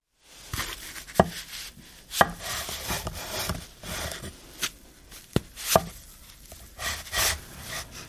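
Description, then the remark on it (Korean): Repeated sharp cutting sounds in a workroom as soap bars, taken out of a silicone mold, are sliced with a cutter, a series of crisp chops with scraping in between, irregularly spaced over several seconds, with no talking. “실리콘 몰드에서 비누를 꺼내 커터기에 넣고 잘랐다.”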